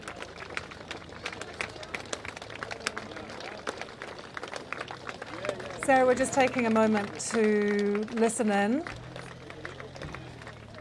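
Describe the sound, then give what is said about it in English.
Many thousands of people walk along and clap as a funeral cortege goes past, a dense patter of sharp claps running steadily throughout, while a person speaks over it for a few seconds midway. “hearing those many thousands of people who are there just walking along and clapping as the cortege goes past.”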